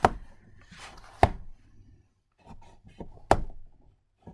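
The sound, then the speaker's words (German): A cookie cutter is pressed through liver sausage dough onto a board to cut heart-shaped dog treats, making three sharp knocks with softer taps, scrapes and rustling between them; no one speaks. “So ein bisschen glatt streichen, ausstechen.”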